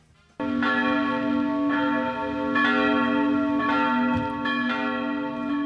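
Church bells ring out loudly and continuously on Christmas Eve, ringing in Christmas at five o'clock, with repeated strikes roughly every second layering rich, sustained tones that hum and overlap. No voices are heard.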